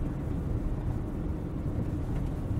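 car interior road noise

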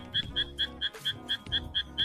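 frogs croaking

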